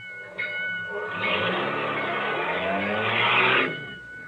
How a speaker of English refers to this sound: Hey, what's the idea? You stalled the car.